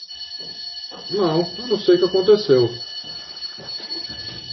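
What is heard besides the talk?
fire alarm ringing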